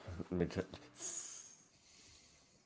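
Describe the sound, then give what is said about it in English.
A short burst of voiced vocal sounds, then a person's drawn-out, sharp hiss imitating a snake that lasts under a second before fading into quiet background. “Is that a snake?”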